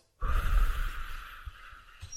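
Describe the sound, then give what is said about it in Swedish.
A woman exhales fully in a single long, forceful, breathy exhalation, tapering off over about two seconds with a faint extra puff at the end; no talking. “Hon andas ut.”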